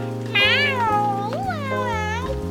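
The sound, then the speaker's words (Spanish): A person imitates a cat, letting out two long, drawn-out meows with rising and falling pitch, loud, over a steady low musical hum in the background. “Levantamos la cola, levantamos la cabeza y vamos a aullar como gatos. Miau, miau,”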